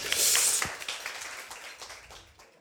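An audience applauds to welcome a writer who will recite a monologue: a dense burst of crackling hand claps that starts loud and gradually thins out and fades over a few seconds, with no voices heard.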